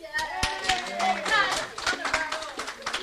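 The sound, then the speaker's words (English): Scattered clapping from a small crowd, sharp irregular hand claps mixed with overlapping voices and cheerful calls, moderately loud throughout. “I want everyone to give a, a real warm, warm uh, round of applause to Tyler”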